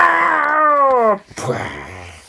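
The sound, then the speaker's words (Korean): A human voice imitates a tyrannosaurus roaring as it keeps striking a rock: one loud, drawn-out cry that slides downward in pitch for about a second, then breaks off into a rough, lower growling tail. “티라노사우루스는 엄청나게 큰 소리를 지르며 계속 바위를 쳐댔어요.”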